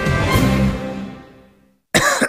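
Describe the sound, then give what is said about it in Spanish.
A fading, ringing sound tails off into brief silence, then a sudden, harsh cough bursts in at the end, opening a radio advertisement for Herbetón Respire cough syrup. “¿Cansado de toser?”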